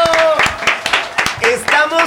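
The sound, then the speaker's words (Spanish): Audience applause, a dense run of claps with voices and cheers mixed in, lasting about two seconds at a steady, loud level. “¡Aplausos”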